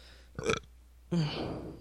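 A loud burp right into the microphone: a short croak first, then a longer, rumbling belch that drags on for most of a second with no talking.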